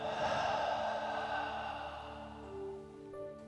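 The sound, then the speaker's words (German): A long, deep exhale after a deep breath in, breathy, gradually fading over a couple of seconds while soft sustained tones hum steadily underneath. “Und wieder aus.”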